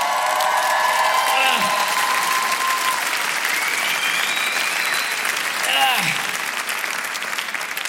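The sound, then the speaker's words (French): The Montreux Comédie audience bursts into sustained, loud applause for comedian Verino, dense clapping that fills the whole stretch, with whoops and rising cheers cutting through at moments before it gradually eases off. “Préparez-vous maintenant à accueillir notre prochain artiste et faites du bruit, où que vous soyez, pour Verino.”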